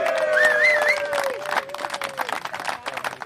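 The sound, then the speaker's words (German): An audience applauds a girls' handball team in a dense, sustained wash of clapping, with a few whistles and voices rising over it at the start before the clapping continues steadily. “Ich finde, die haben den Applaus verdient, die haben das sehr gut gemacht.”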